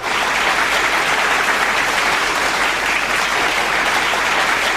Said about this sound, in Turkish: Benim bu alkış e, şeyde vardı. Şarkıda vardı. Ben basmadım yanlışlıkla.